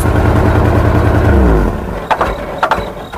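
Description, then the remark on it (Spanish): A loud engine drones with a heavy low hum that sags downward, then falters into rough sputters, with a few sharp knocking pops as it struggles. “Hay sonidos que es mejor nunca tener que escuchar.”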